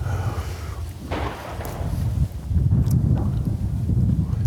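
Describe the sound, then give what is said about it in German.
A few dull booms of fireworks going off outdoors in the dark, one louder blast from a bigger firework standing out, all under steady wind buffeting the microphone and a low rumble. “Uiuiui, da ist was Größeres explodiert.”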